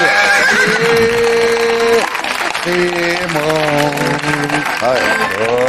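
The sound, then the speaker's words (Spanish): Someone imitates a horse whinny with wavering, drawn-out vocal cries, while hollow coconut-like hoof clip-clops and a noisy, crowded background carry on throughout. “Oye, pirata, ¿tú tienes cocos de esos de para hacer caballos?”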